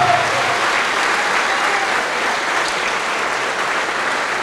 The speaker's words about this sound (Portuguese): Então dá uma salva de palmas para Jesus.